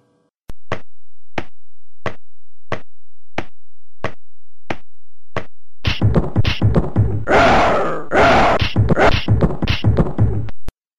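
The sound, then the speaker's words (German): Sampled sound effects from the later Amiga version of a video game: a steady series of about nine sharp clicks, then a dense burst of loud crunching, noisy hits and grunting blasts for several seconds. “Und in diese Fassung können wir mal ganz kurz reinhören, weil die hat immerhin schon gesampelten Sound.”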